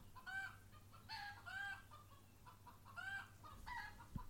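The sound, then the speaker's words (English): Several chickens cluck and squawk in short repeated bursts outside, with a steady low hum running underneath. “You know, the chickens are on the chickens are on parade outside here.”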